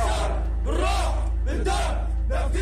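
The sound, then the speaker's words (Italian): A group of Syrian fighters, supporters of the Assad regime, shouts battle cries in loud, rising bursts, several voices chanting together in rhythmic waves over a steady low hum. “sono i combattenti che state sentendo e sono i fan del regime di Assad, del regime siriano sostenuto da Putin.”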